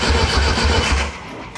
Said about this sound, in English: Clanky. Well, it sounded like one of those uh, tailgates with the with the chains. So rad! I love it. You hear every cylinder firing.